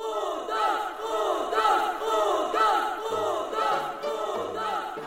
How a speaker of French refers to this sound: C'est alors que tout le village se mit à scander son nom.